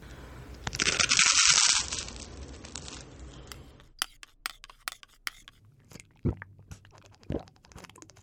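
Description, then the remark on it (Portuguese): A brief loud rustle up front, then crunchy chewing: a daughter hurriedly eats breakfast before her first day of school, in sharp, irregular bites with quiet gaps between them, and no talking. “Agora come logo e pula pra dentro do carro, gente.”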